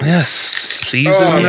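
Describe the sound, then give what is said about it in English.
A beer can cracks open with a soft, breathy fizz that hisses for under a second between bursts of talking, the spray sound lingering faintly beneath the voices. “Jeez, cracking open a three week, cracking open a beer, three guys.”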